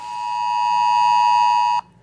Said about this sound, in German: Hier wird mit dem Handy nicht nur lautstark gewarnt, sondern auch Handy-Standortdaten, Überwachungskameras und auch Kreditkartendaten genutzt und teilweise gekoppelt, um vor dem Kontakt mit infizierten Personen zu warnen.